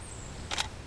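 A single quick camera shutter click, a crisp double-snap of the mechanism, as a photographer photographs a nude woman's body, against a quiet, low hum with no voices.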